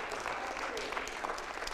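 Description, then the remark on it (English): An audience claps steadily, a dense, even patter of many hands with a few sharper claps standing out, sustained for under two seconds at a moderate level. “You don't have to clap.”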